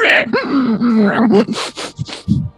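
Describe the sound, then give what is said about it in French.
A person vocally imitates a velociraptor call: a drawn-out, wavering screech with rising and falling pitch, followed by breathy, hissing rasps and short grunting bursts, loud. “C'est quoi, t'as pas eu mon imitation de Vélociraptor?”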